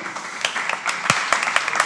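Thin, scattered applause from a small audience at an event hosted in the offices of the law firm Pearl Cohen Zedek Latzer Baratz, a handful of uneven claps that never builds into a full ovation.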